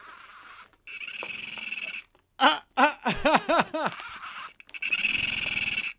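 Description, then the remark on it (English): A talking toy doll, set off by pulling a spider, screams and shakes: a buzzy mechanical rattle, then several loud, shrill, warbling electronic screams in quick succession, then the rattling buzz again, loud. “Try me. Pull the spider. I scream and shake.”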